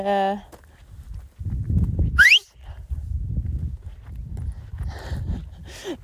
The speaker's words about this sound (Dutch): sorry. Heb ik even in uw oor gefloten. Ik wou even eh, zwaaien naar mijn kind.